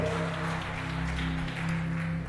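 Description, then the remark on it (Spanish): A crowd applauds for Jesus, clapping steadily and continuously for a couple of seconds in a dense wash of hand claps, with a low sustained musical tone humming underneath. “Del otro aplauso a Jesús.”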